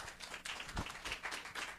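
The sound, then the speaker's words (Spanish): A crowd gives an applause to the Lord, clapping together in steady, dense applause, many hands overlapping into a continuous patter that stays fairly even throughout the short burst. “Demos un aplauso al Señor, ¿no?”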